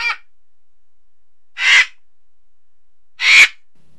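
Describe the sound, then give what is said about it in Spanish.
An Andean condor gives three short, harsh rasping calls, spaced evenly about a second and a half apart, with silence between them and no one talking. “El Cóndor andino: ¿Cómo logra volar tan alto?”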